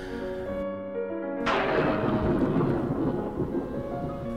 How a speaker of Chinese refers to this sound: 天空响起了隆隆的雷声，一道闪电划过，傍晚的山谷被照得如同白昼。